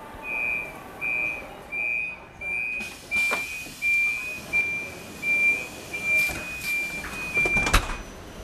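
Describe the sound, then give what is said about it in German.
Ambience in a railway repair workshop over 200 metres long, where specialists service locomotives and carriages, including double-deck coaches: a steady high warning beep pulses repeatedly, then holds as a continuous tone, while sharp metallic clanks and a low machinery rumble sound underneath. Nobody speaks. “Ihnen schauen wir heute über die Schulter bei unserem Besuch in der über 200 Meter langen Werkstatt bei Abenteuer Eisenbahn, dem MDR Thüringen Podcast.”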